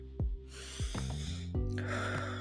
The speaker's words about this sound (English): Okay. Um, and then if I breathe, I feel like you can get that, and you probably fucking just heard me breathing. Hold on. Let's all breathe together.